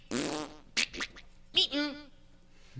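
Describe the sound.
A person makes mouth fart noises: a long buzzy raspberry followed by a few shorter sputtering bursts, fairly loud, then it trails off into quiet.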